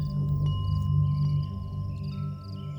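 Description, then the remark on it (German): A deep, rumbling hum of the earth drones steadily and fairly loudly throughout, low and resonant, with faint thin tones hovering above it and a slight swell midway. “Der Flick legt drum seine Hand auf den warmen Boden und wie eine Katze, wo schnurrt, wenn man sie streichelt, brummt die Erde. Tief und bauchig.”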